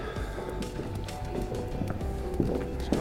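Steady footsteps clack along a hard floor at a brisk walking pace as people walk into a hallway, over a constant backdrop of background noise.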